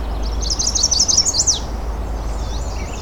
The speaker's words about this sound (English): There we go, chestnut sided warbler. Fairly close up. And now he's flown off.